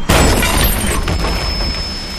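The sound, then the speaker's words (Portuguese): A sudden loud crash bursts in at the start as a door smashes inward, followed by a sustained rush of noisy, splintering roar as strong wind blows in, slowly easing off. “Do lado de fora, o vento começava a sibilar então, a porta estourou.”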